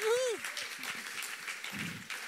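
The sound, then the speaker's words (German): An audience at ICF Bern breaks into steady, crackling applause for the technical crew, holding throughout, with a rising and falling whoop at the start and some voices mixed in underneath. “Ein Applaus auch für die Leute, also die machen das also krass.”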